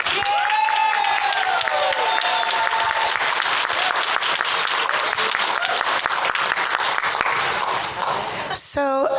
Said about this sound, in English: I want each of you right here and now, put those forks down. I know the apple pie is good, but you know, and I want you to give yourselves an applause.